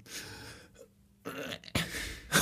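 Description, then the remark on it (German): A person breathes in and out in exaggerated, noisy breaths: a long airy inhale, a pause, then several forceful exhales, ending with a sharp final puff. “ich, ich weiß nicht, dann sagen die rein und rausatmen und ich immer.”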